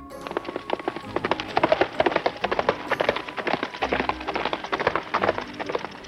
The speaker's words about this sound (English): The horse slowed down to a gallop and stopped in front of me.